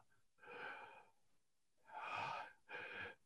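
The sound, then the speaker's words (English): A voice imitates a man's wheezy, shallow panting: three raspy, strained breaths, a longer one, a pause, then two quick ones in succession, with no talking. “Uh, and he he you know you can hear his like wheezy shallow breathing as he pants”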